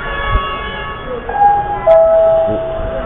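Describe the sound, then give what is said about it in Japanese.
The Ringo maglev train glides slowly into a station with a quiet, steady whine and a faint low rumble, a couple of rising electric tones sounding as it slows to a stop. “リンゴがやってきました”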